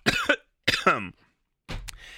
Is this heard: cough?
yes